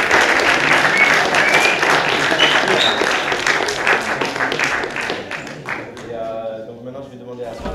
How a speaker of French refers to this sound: Un dernier applaudissement pour elle.